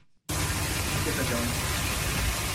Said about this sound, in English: That's not the sound of chestnuts roasting on an open fire. It's the sound of an unwatered tree going up in flames in less than 10 seconds. Pine needles are really good at catching on fire.